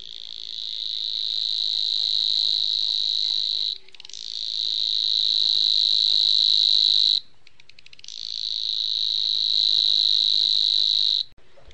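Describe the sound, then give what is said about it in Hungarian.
A Savi's warbler (Locustella luscinioides) reels its dry, insect-like trill, a high, fast buzzing held steady in three long bursts of several seconds each, separated by brief pauses. No voices are heard. “Nádi tücsökmadár (Locustella luscinioides)”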